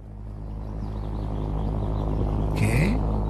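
The very primitive pulsejet engine of a V1 flying bomb, sent over London, drones loudly and steadily, a coarse low buzzing throb with no pause, joined near the end by a brief higher-pitched burst.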